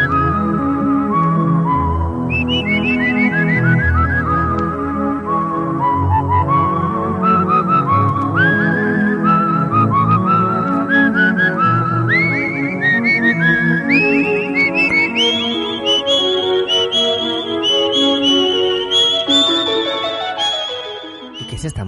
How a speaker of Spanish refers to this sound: Esto es la arabesca número uno de Claude Debussy, pero en este caso no está interpretada al piano